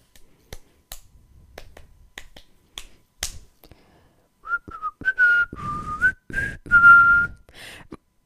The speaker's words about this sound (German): Oh Gott, das ist ein netter Pfeifen.